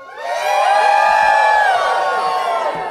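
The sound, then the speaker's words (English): A large audience at a Comic Con screams and cheers on request in one loud, sustained roar that swells quickly and holds for a few seconds, with high-pitched shrieks mixed throughout the crowd noise. “Hey, everybody scream for a second. Hands up.”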